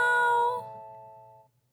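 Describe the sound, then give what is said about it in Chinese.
A single cat meow, bright and tonal with a rich harmonic ring, starting loud and then fading out smoothly over about a second and a half, with no talking. “喵喵喵喵！”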